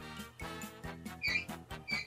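Shoes squeak and chirp sharply against a smooth floor as someone does the moonwalk, in a quick, repeated rhythm of sliding steps, with scuffing thuds between the shrill squeals, fairly loud.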